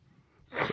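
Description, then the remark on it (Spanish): A single short sneeze bursts out after a brief quiet moment, a sharp, breathy blast with no talking around it. “Jesús.”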